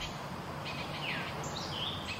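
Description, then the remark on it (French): Birds recorded by tiny AudioMoth field recorders around Lac Saint-Pierre: a few thin, high chirps and short whistles come and go over a steady wash of outdoor background noise, fairly faint. “Autour du lac Saint-Pierre, Étienne Laure et son équipe ont donc installé des audiomotes – de toutes petites enregistreuses pour épier les oiseaux et les insectes qui s'y trouvent.”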